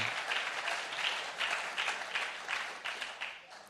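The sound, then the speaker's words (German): An audience applauds the small-group leaders, many hands clapping in a dense, even wash of sound that holds for several seconds with slight swells, no voices standing out. “Und ich wollte heute klatschen wir viel, aber lassen Sie mir mal nochmal einen großen Applaus geben, weil das ist so wertvoll und mir wertschätzen Sie.”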